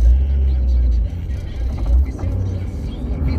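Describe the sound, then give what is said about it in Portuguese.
A truck rumbles past on the road on a hot, sunny morning, a loud, deep engine drone that stays steady for a few seconds, with some indistinct talk underneath. “caminhão passando aqui.”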